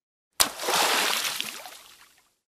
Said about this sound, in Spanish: el viento en las alturas sopló tan fuerte que de sus manos se soltó y entre las nubes se cayó. ¡Cayó al agua!